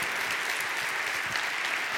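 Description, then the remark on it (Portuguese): A standing church audience claps steadily in applause to the Lord, a dense, continuous wash of many hands applauding at an even loudness for the whole two seconds, with no voices standing out. “E assim em pé deu um lindo aplauso ao Senhor.”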